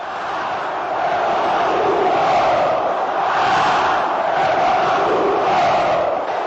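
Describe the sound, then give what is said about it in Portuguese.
A football crowd at a Flamengo versus Grêmio match roars continuously, a dense, loud wall of cheering and shouting that swells and surges in waves without any pause. “Futebol deixa a torcida assim.”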